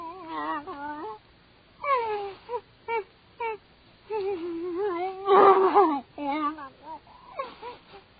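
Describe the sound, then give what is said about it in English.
A woman with a gag over her mouth lets out muffled, stifled screams and moans in a series of short, rising and wavering bursts, fairly loud, with brief pauses between them. “Scream, yell, rave all you want. This gag over your mouth serves its purpose well.”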